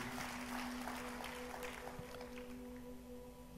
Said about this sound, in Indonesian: Kemauan berikan tepuk tangan buat Tuhan.